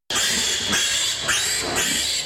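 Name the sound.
piglet squealing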